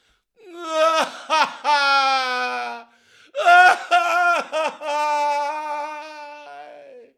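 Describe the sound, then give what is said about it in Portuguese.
A man, Sócrates in the story, wails and sobs loudly in two long drawn-out bursts broken by short choking gasps and a brief pause between them. “E Sócrates começou a chorar de novo.”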